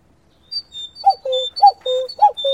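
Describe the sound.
Someone imitates a cuckoo, a clear two-note falling call repeated three times in a steady rhythm, fairly loud, with thin high whistled tones running alongside and starting just before.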